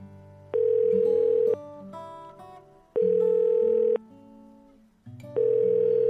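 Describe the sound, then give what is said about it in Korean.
A telephone ringback tone sounds three times in steady one-second bursts with short pauses between, loud, while soft background music plays underneath; the phone call goes unanswered. “왜 이렇게 전화를 안 받아?”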